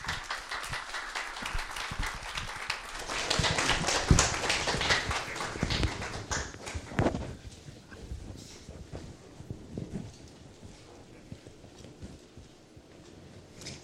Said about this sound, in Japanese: それでは拍手を持って先生を講談にお招きしたいと思います